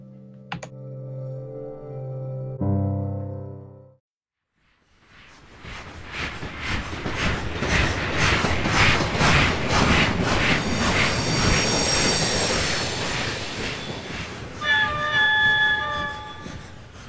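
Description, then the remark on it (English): A train rolls along the rails with a steady clickety-clack, loud, after a brief tonal blast and a pause; a high metallic squeal rises near the end. “Shortly after having my ticket in hand, I boarded the train.”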